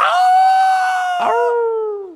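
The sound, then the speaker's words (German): A person imitates a wolf howl: a loud, sustained, tonal cry that breaks briefly midway, then resumes and slides downward before fading out, with no other sounds around it. “Howling like a wolf.”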